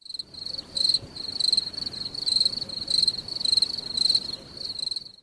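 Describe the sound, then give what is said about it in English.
Crickets chirp steadily in a shrill, pulsing rhythm, with regular bursts of high trilling repeating about every half second over a quiet, steady background, no voices. “can I get some crickets, please?”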